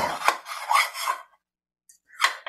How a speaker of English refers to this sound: I'm going to use a spoon to get out what will not pour into the pan directly. And so I'm just scraping it out.